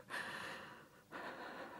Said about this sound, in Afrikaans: Ek sit en hyg.